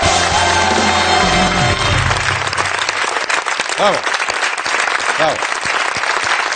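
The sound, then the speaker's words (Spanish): A crowd applauds steadily for people who kept to the perimeter lockdown closures, a loud, dense wash of clapping that lasts the whole stretch, with a low voice at the start and a couple of brief rising cheers or whoops mixed in. “Un aplauso para ellos, bravo.”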